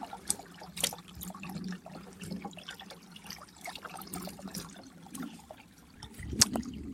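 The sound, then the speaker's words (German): Gentle trickling and splashing of water with a few sharper clinks and splashes as a person scoops water from a stream with their hands to drink, then a brief louder splash near the end. “ordentlichen Schluck nehmen”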